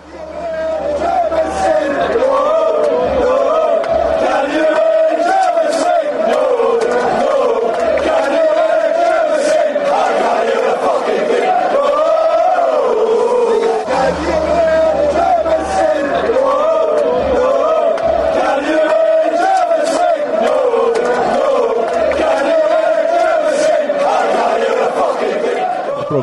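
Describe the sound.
A big stadium crowd of England football fans chants together while their team is beating Germany, a loud, sustained, rhythmic sing-along, voices merging into a steady roar that carries on for the full stretch with brief swells.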